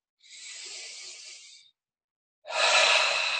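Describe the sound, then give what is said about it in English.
A long, airy full deep inhale followed after a short pause by a stronger, louder exhale during a guided breathing exercise, both breathy with no talking over them. “Breathe in again. Full deep breath and relax.”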